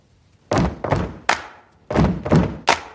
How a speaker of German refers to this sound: Stampf diesen Rhythmus. Jetzt macht schon.